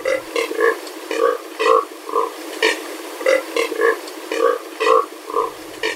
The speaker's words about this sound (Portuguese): Quem nunca ouviu esse som de perto antes pode despertar a criatividade aí, imaginar que o dono dessa voz possa ser um anfíbio, um mamífero, mas na verdade esse som é de uma ave, o biguá.